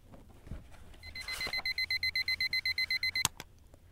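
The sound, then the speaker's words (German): An electronic alarm clock showing 7 o'clock beeps in a fast, even series of about a dozen shrill pulses, fairly loud, then cuts off abruptly with a sharp click. “Als Joachim wieder wach wurde und der Wecker 7 Uhr zeigte, stand er auf”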